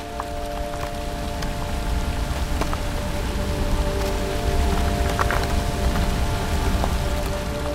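Meltwater trickles and streams steadily down small brooks on the ice surface of a glacier, a continuous gurgling wash with scattered light drips and ticks, no voices present.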